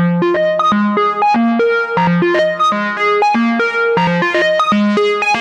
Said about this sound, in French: Allez, un arpège. Voilà, c'est du synthé euh, de monophonique, hein, euh, avec euh, tout ce qu'on peut aimer dans le synthé monophonique, mais évidemment, il faut pas s'attendre à faire un morceau complet juste avec ça.